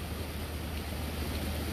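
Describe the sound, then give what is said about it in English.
Steady, continuous rushing of a flowing stream among ferns, leaves and other plants, with a low rumble underneath, even in loudness throughout and without any voices. “One thing that I've noticed um, spending time with water is that this particular stream, it never stops.”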